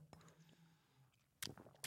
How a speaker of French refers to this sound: Petite gorgée d'eau, pardon, et j'en fous partout.